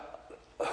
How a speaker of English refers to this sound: bless you